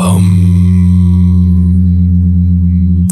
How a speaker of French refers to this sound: Tu vois, le but, justement, parce que Om, c'est le son de la création, de l'univers. C'est censé être ça, en tout cas pour les, chez les anciens.